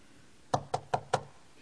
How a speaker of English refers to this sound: he gets a knock on his door.